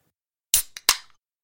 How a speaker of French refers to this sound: Le suintement du gaz qui s'échappe de la canette lorsqu'il l'ouvre, ça c'est un bruit réconfortant.